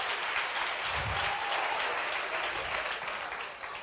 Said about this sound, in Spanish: Dele fuerte el aplauso. Déselo fuerte.